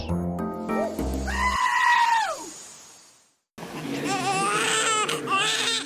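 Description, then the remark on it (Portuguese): A newborn baby's first cry, loud, wavering wails, one long cry fading out, then a short silence before a second stretch of sobbing, with a brief musical phrase at the very start. “Quando um bebê chega ao mundo, não importa que a mãe seja portuguesa, inglesa, canadiana, palestiniana, o primeiro choro é um eco de esperança.”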